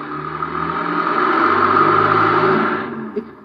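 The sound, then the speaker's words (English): A car engine rumbles, its broad whooshing noise swelling as the vehicle rolls out of an alley and then fading over a few seconds, with no voices. “There's a car coming out of the alley.”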